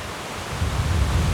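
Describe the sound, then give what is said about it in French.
Gentle rain falls in Corrèze as a steady, even hiss across the whole clip, with a soft low rumble growing a little fuller partway through. No voices are heard. “Une douce plie vient recouvrir le son de sa voix.”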